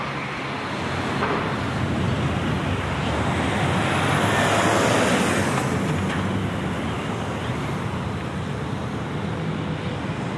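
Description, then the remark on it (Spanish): Dense city traffic on Ronda de Valencia roars steadily throughout, a continuous wash of cars and heavier vehicles passing by, with a louder swell midway as something large goes past. “La primera calle grande a la que sale Ronda de Atocha, Ronda de Ronda Tocha, Ronda de Valencia, que hay bastante, bastante tráfico.”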